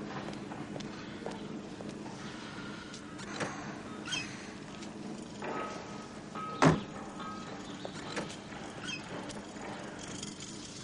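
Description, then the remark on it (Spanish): A chauffeur opens a car door for a girl with a sharp latch clack partway through, amid soft footsteps, light mechanical rustling and a steady background hum. No one speaks. “El chofer sale, saca la maleta de la chica y le abre la puerta.”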